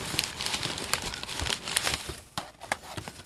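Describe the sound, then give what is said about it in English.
Crinkling Bigelow tea bag wrappers, in flavors including peach, orange and spice, peppermint, ginger honey and vanilla caramel: a dense run of crisp, papery crackles and rustles with sharp snaps scattered throughout, steady and fairly loud, with no voices over it. “More Jeez. Bigelows.”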